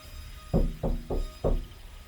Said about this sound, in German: Dann klopfte es erneut von außen gegen die Wagentür.